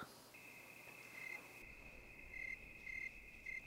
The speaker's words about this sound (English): They don't bite you or make you itch, and their singing is so wonderfully monotonous. The world needs more monotony, and crickets are happily doing their fair share.